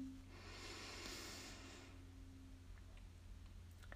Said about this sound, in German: Und dann nehmen wir uns einen Moment Zeit, um einfach mal hier anzukommen in diesem Raum. Wir atmen einmal tief durch die Nase ein,